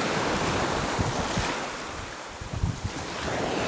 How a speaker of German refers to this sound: So, Wellen werden aggressiver.